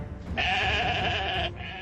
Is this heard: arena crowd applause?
no